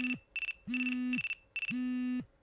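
An electronic phone ringtone plays in a repeating pattern of bright synthetic tone bursts over a steady low hum, clear with no one talking; it is an incoming call from the president (kaichō).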